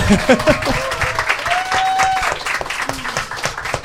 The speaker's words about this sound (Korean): 아, 박수 한번 부탁드립니다. 네.